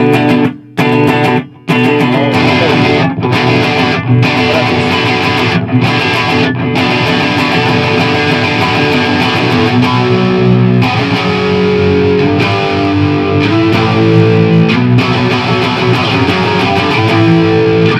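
Electric guitar played through an amp whose gain stacks up progressively in three stages from a clean tone, giving a thick, driven tone. A few short chord stabs with brief gaps open it, then loud, sustained distorted playing continues without talk.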